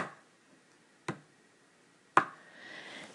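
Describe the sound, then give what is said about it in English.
Two sharp knocks about a second apart, heard in a house at about 10 o'clock at night, the second louder than the first, against a quiet background with faint rustling creeping in near the end. “And then it started to sound like knocks.”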